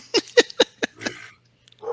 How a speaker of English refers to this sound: my dog's gonna go crazy here in a second, and my dummy left the door open, so I'm gonna have to just lean over and get some quiet over here.